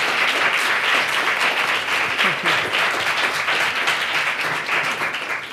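Loud, sustained applause from many hands, a dense crackle of clapping that holds steady for several seconds and fades slightly at the end.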